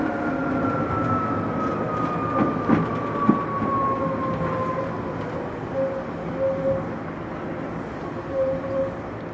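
A Tokyu 8500 series train runs between Omotesando and Azamino with a broad, continuous rumble and roar, a faint falling whine sliding across the run, and a few soft thumps and clacks of wheels over the track.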